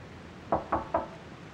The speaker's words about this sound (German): Clemens klopft erneut.